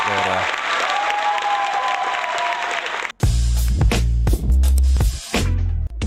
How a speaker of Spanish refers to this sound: Un aplauso para ti. Ah. un aplauso para ti,